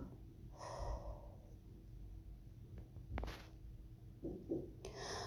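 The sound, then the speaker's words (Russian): A deep, drawn-out inhale followed by a long, slow exhale, fairly quiet, with a few softer breath sounds near the end and no talking. “Сделай глубокий вдох и медленный выдох. Еще раз вдох и еще раз медленный выдох.”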